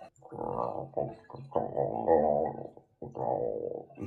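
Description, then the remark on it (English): Low, throaty gurgling of water draining through the safety overflow of a bathtub filled very high. It comes in several bubbling bursts separated by short pauses, fairly loud, with no talking. “I've run the bath so high that there's going to be some, you know, overdrain sounds.”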